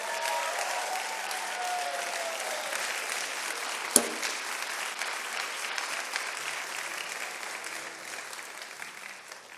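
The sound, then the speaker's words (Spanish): An audience applauds loudly and steadily for the Lord, a dense wash of clapping that holds for several seconds, with one sharp crack partway through and a slight easing toward the end. “Vamos a darle ese aplauso fuerte al Señor hoy.”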